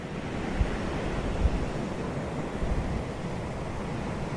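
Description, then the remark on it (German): Steady rushing surf washes over a pebbly beach in the Dominican Republic, a continuous low roar with a couple of faint clattering knocks, moderately loud, with no voices. “Das sind die besonderen Pebbles, die in der Dominikanischen Republik äh, rumliegen, die diesen einzigartigen Sound machen.”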